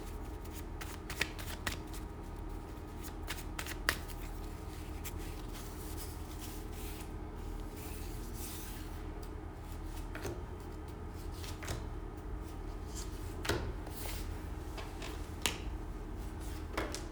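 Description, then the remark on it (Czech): Tarot cards are shuffled and laid out for a reading in a steady papery flutter, with a few sharp snaps and slaps as cards hit the table, no one speaking. “Já to vyhodím zrovna ty karty, ať to můžeme pěkně porovnávat.”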